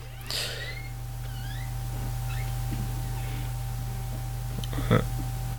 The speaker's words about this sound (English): Sorry, I heard a door going in the background. Yeah, you got a haunted. You got a ghost in there.